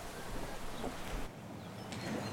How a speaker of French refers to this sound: Alors nous sommes euh, dehors, le studio euh, est sous les arbres, c'est plutôt agréable, il y a un petit peu de vent